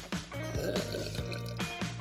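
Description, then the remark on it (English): Someone sips a turmeric sunrise flavored kombucha drink, with a few wet, slurping pulls and soft liquid gurgles over about two seconds, fairly quiet, with no talking. “I'm sipping one right now.”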